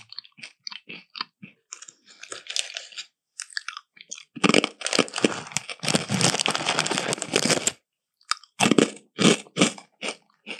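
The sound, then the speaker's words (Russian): Dry crunching of croutons being eaten: scattered sharp bites at first, then a few seconds of dense, continuous chewing, followed by several more crisp crunches. No one speaks. “Рядышком с чипсами кукурузные палочки? Нет. Сухарики? Да, да, да.”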